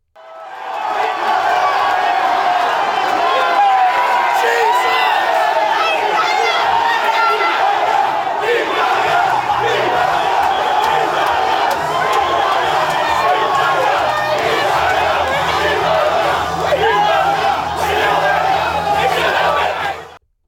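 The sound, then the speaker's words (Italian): A large crowd of the Italian diaspora celebrates noisily on Lygon Street, Melbourne's Little Italy, after an Italian football title win: a dense, constant roar of cheering, shouting voices and whoops that stays loud throughout, with low rumbling tones building up in the second half. “Questo angolo nella zona dedicata al cibo della città, conosciuta con affetto come la Little Italy di Melbourne, è esploso di gioia, rumore e colore.”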